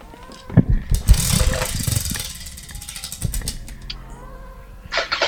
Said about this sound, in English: Let's move on. Another spin on the wheel of Chingadera.